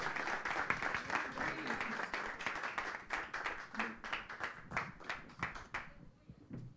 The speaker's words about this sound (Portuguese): Glória a Deus. Dê mais uma salva de palmas ao Senhor, amém? Glória a Deus.